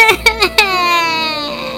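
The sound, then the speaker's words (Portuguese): A woman cries, with three short sobbing catches followed by one long, drawn-out wail that holds steady before trailing off, loud and alone without any talking. “Não sei nem o que, vai ser, mas já tô chorando.”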